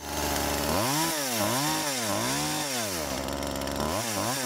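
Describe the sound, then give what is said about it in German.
A chainsaw engine runs loud, revving up and down in repeated surges, its pitch rising and falling several times with a constant buzzing rattle and no voices. “Meine Kettensäge ist leider gerade leer, sonst hätte ich sie kurz mal angemacht.”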